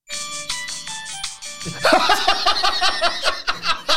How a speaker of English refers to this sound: But it's just it's Santa's smiling face as replaced number twenty. Hear what Santa's Santa's fart sounds like, shall we?